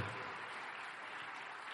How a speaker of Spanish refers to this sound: Póngase de pie, un fuerte aplauso al Señor